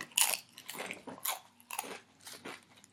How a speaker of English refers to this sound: Eating some Doritos. Get some Doritos.